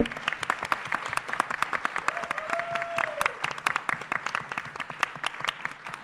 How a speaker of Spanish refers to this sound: Un aplauso de nuevo para los invitados. Bravo.